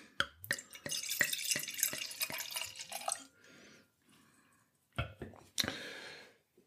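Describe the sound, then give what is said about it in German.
White wine from a 2016 screw-cap bottle pours into a glass with a splashy, bubbling rush for a few seconds, followed by a short pause and then a second brief pour with a bright clink. “Und dann schauen wir mal, wie der Wein im Glas ausschaut.”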